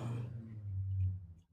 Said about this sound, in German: Übrigens, das Grunzen, was ihr im Hintergrund hört, das ist mein Hund, der schnarcht.